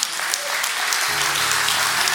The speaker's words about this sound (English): This is not my church, this is His church. Come on, clap your hands.